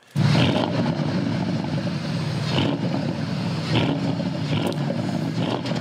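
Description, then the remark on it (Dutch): A Porsche Panamera Sport Turismo Turbo engine roars loudly and steadily, its deep rumble swelling slightly a few times as it revs, with no one speaking. “maar goed, uh, eh, eh, de Porsche Panamera Sport Turismo Turbo staat in de startblokken.”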